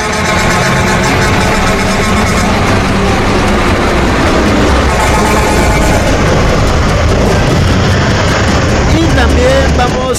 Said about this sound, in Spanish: Bocinazo, bocinazo.